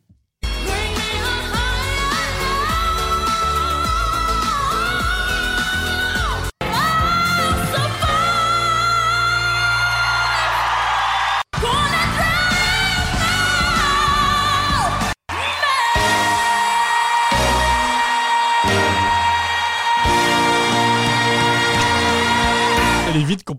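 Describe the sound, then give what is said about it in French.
Powerful belted singing by a female contestant at X Factor Malta 2020 soars over loud, full backing music, heard as four abrupt back-to-back excerpts with sustained, vibrato-laden high notes throughout. “Alors je préfère vous prévenir, ça hurle à tous les étages.”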